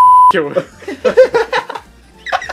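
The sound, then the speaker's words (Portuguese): A short, loud, steady high-pitched censor beep covers the spoken name of a teacher, lasts about a third of a second, then cuts off abruptly as a man starts talking. “É, é, é, eu vou falar o nome dele só pra tu botar o vip depois, porque eu quero ouvir esse vip”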